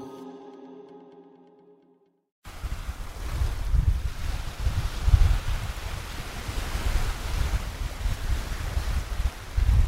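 After a short musical tail fades out, loud ocean surf and gusting wind on a beach near Cancún take over, a steady roar with low rumbling buffets across the microphone and no voices.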